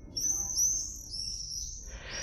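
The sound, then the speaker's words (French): Shrill, high-pitched cries from a flock of birds flying high in the sky on a sunny summer day, several screeching calls overlapping over about two seconds against a low background rumble. “Un jour de plein été, où je m'étais baladé sous un beau ciel bleu, j'entendis des cris stridents, typiques de la saison.”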